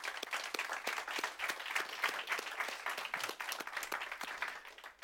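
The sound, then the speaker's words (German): A crowd applauds in the morning in Austria to greet the viewers watching at home. Many hands clap in a dense, continuous patter that holds at an even level throughout, without any voices over it. “Und lass uns die Leute zu Hause bitte mit einem kraftvollen Applaus begrüßen heute Morgen.”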